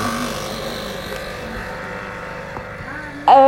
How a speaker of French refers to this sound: Quelqu'un est en train de faire un café derrière là. Qui a fait le café